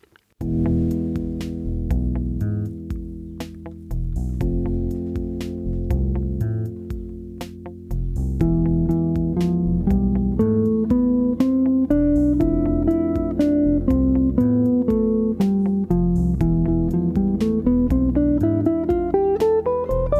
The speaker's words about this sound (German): Im ersten Beispiel spielen wir die Skala E phrygisch über E-Moll und F-Dur, die beiden Akkorde im Wechsel.